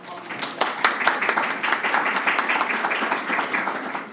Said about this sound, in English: We could have a quick round of applause for them.